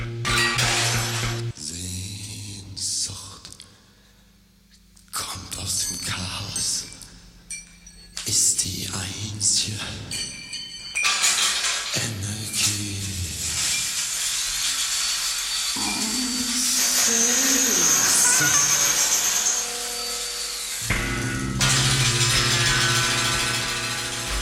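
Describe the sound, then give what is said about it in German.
An industrial song with a low, insistent bassline pulsing steadily like ticking, broken up by harsh metallic clatter, scraping and grinding noises that surge loudly throughout. “eine Basslinie tickt, wie eine Uhr oder eine Bombe.”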